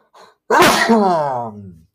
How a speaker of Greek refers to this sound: Αυτό ακριβώς παθαίνει όταν έχει live. Αν σου έρθει να φταρνιστείς, ζητάς ένα συγγνώμη και προχωράς γιατί πρέπει να φταρνιστεί. Ζητώ συγγνώμη λοιπόν και συνεχίζουμε.